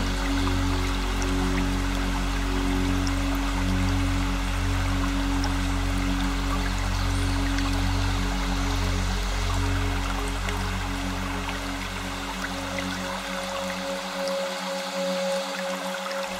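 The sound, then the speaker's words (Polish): A small stream warmed by sunshine flows steadily, a continuous bubbling trickle with soft splashes and a low watery rumble underneath, no voices present. “szum małego strumienia ogrzewanego promieniami słońca.”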